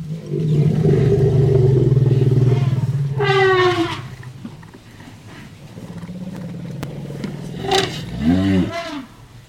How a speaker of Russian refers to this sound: Вот это на самом деле дружелюбный сигнал. Один слон зовет и хочет пообщаться, а второй радостно отвечает